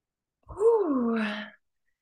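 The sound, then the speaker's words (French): A single deep breath released as an audible sigh, voiced and falling in pitch before trailing off into a breathy hiss, about a second long with no talking. “Je t'invite à prendre une grande respiration avec moi.”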